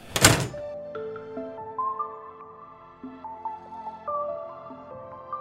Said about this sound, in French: avant la salle du conseil municipal, il y a du, il y du public, euh, n'importe qui peut venir voir, mais je boucle les portes, je ferme les portes